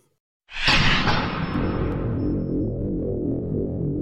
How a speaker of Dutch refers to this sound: We hoorden dus iets opstarten. En dat is een kernreactor. Het geeft een indrukwekkend geluid.